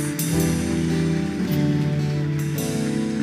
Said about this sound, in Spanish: Sí, aquí, gracias, bienvenidos. Porque le dan un fuerte aplauso a ellos?